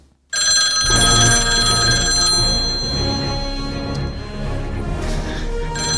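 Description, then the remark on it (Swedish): A phone ringing tone starts abruptly and carries on loudly and without a break for several seconds, with a busy, dense layer of sound underneath and no one speaking. “Vi, vi ringer. Vi får se, han svarar.”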